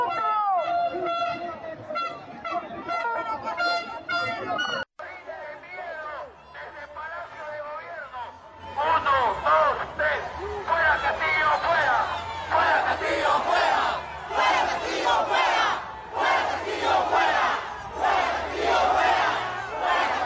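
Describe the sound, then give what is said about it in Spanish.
A large crowd at a protest march chants and shouts together in rhythmic bursts, loud, calling for Castillo's removal, with a dense roar of many people behind the repeated calls. “¿Qué más tenemos en las marchas? Escuchemos.”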